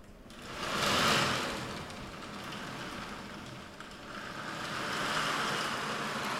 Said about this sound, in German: Sie merken, der Sturm ist ziemlich groß und die Wellen schlagen hoch. Das muss man sich wahrscheinlich noch größer vorstellen. Also es ist ja hier ein Nachbau.